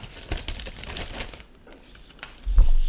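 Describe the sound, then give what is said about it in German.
Paper crinkles and rustles as a hand rummages through a bag to draw a slip, with a busy burst of crumpling at first, a quieter pause, then a louder rustle at the end. “Ich dachte, die Tüte wäre hier, weil du so guckt. Willst du mal ziehen?”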